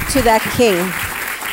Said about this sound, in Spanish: Dele ese fuerte, fuerte, fuerte aplauso a ese Rey.